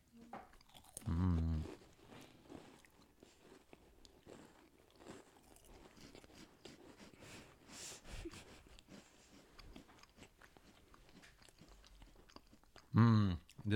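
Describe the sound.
Close, steady crunching and chewing of crisp crackers, with brittle snaps repeating throughout, framed by a couple of loud voiced murmurs near the start and end.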